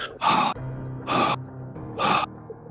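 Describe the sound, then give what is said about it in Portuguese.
A voice imitates someone blowing as if breathing heavily: three loud, breathy huffs spaced about a second apart, with faint background hum between them and no talking. “eu começo a sentir no meu rostinho lindo e carinhoso como assim, alguém soprando, fazendo, como se estivesse respirando, assim.”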